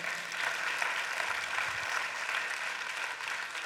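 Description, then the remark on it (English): An audience bursts into steady, sustained applause as a hand of praise for God, a dense wash of many hands clapping at once that holds evenly for several seconds with no voices on top. “Give God a hand of praise.”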